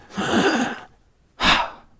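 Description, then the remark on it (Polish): A voice imitates the heavy, labored breathing of a person buried underground in a forest: a long, breathy exhale followed after a pause by a sharper, shorter gasp, fairly loud with no talking. “Taki oddech słyszymy i wiemy, że ktoś tam pod tym jest w lesie zakopany.”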